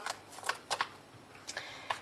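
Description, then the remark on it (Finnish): Crinkly bag rustling in short, irregular bursts, fairly quiet, with a few soft scraping scoops as a teaspoon of cumin (jeera) spice mix is taken from the bag. No one speaks. “Ja tästä otetaan nyt sitten yksi teelusikallinen tätä mausteseosta”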